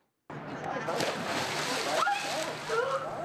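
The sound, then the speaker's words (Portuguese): Steady splashing and sloshing of cold winter water in the interior of São Paulo state for a few seconds, with a voice breaking in briefly toward the end. “Até para encarar a água gelada do inverno no interior paulista.”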